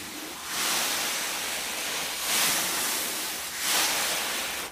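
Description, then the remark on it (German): Imitated surf made by rubbing two clothes brushes across a pillow: broad hissing swells that rise and fall in three slow waves, steady and fairly loud, with no voices. “Das sind zwei Kleiderbürsten. Und ich habe mit den Kleiderbürsten einfach auf dem Kissen gerieben.”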